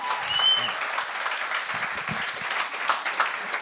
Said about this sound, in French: On l'applaudit.